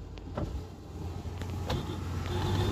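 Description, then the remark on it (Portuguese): Low, steady engine rumble of cars and a truck climbing a road, growing gradually louder, with a few short clicks and rattles on top and no talking. “Aí vem mais carro subindo, olha rapaz. Tem um caminhão também, né?”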